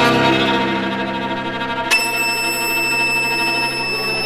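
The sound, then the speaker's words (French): Rich string music from the very end of Smetana's quartet suddenly gives way to a single high, piercing note on the first violin, depicting tinnitus, held steadily and loud for the last couple of seconds, with quieter chords sustained beneath it. “comme euh, à la toute fin du Quatuor, où il est, Smetana euh, est vraiment persécuté par certains acouphènes. On les entend même jouer au premier violon.”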